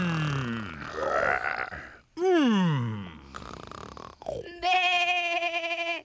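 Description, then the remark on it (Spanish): A child's voice imitates a sheep with a loud, quavering bleat, held for over a second after a few shorter growling and grunting vocal sounds. “eso no es un león, es un borrego.”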